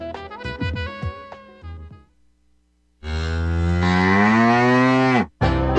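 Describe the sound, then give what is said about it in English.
A brief twangy musical phrase fades out, then after a pause a cow lets out one long, loud moo that drones for over two seconds before cutting off. “Hey there, are you going to wait till the cows come home to get your new ease off drop and lift?”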